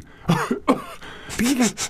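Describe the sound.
A man clears his throat several times in quick succession, close and fairly loud, with rough, raspy bursts and short voiced grunts between them.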